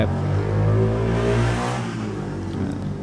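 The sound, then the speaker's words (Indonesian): A Yamaha Panther motorcycle engine revs loudly in an advert, a deep harmonic drone that swells and then settles slightly, continuing steadily throughout with no voices. “biasa iklan iklan iklan Cuma motor panther motor Yamaha”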